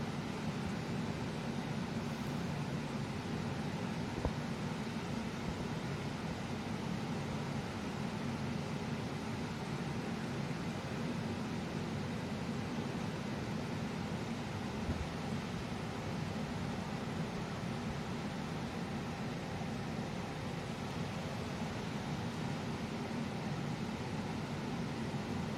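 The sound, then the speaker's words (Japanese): Steady, unbroken rumble of a bus interior, with a low engine drone and broad road noise holding at an even level throughout, with no voices and no distinct events. “バスの音は結構入っちゃうかな”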